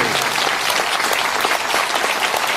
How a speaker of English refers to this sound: Yeah, don't cheer yet. You haven't heard the stories.